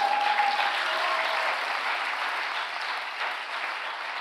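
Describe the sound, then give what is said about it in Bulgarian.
A crowd applauds steadily during a Christian sermon, a dense wash of many hands clapping at an even, fairly loud level that holds throughout with no voices rising above it. “О, ако ръкопляскаш, ръкопляскай като че ти си спасен чрез Неговата безгрешна кръв.”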